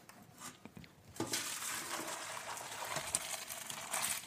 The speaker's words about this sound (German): Die Nudeln sind gut. Sehr gut. Ich gieße die mal ab.